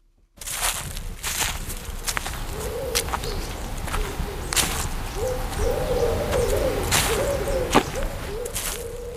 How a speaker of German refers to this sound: wir gönnen uns eine kurze Erholungspause im Wald.